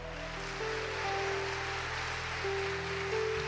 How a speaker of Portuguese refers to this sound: Aleluia! Pode aplaudir o Senhor.